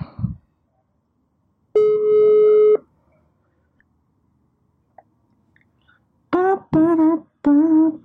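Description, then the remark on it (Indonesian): A phone ringback tone plays while calling a friend, one steady electronic buzz lasting about a second amid quiet, followed later by several short, bright tonal bursts. “gue bakal telepon salah satu lagi nih teman gue.”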